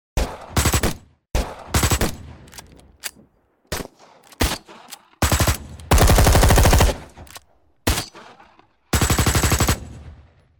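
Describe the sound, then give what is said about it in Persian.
Loud bursts of automatic gunfire, rapid repeated shots in several separate volleys, one longer sustained burst in the middle, with brief pauses between; no voices. “اما گلوله های بعد با قرشی وحشتناک و صدای تند و تیزی مثل پره های پرسرعت یک هلیکوپتر به پرواز در می آیند.”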